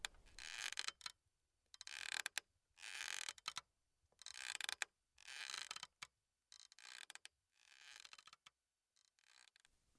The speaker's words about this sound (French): un bruit de balançoire